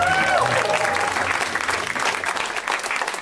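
A live audience at a stand-up comedy show breaks into steady, dense applause for a comedian, many hands clapping at once in a loud, sustained wash with a few faint whistles near the start.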